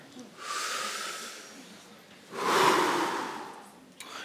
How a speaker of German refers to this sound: Und dann darfst du es dir bequem machen. atme mal ganz tief ein.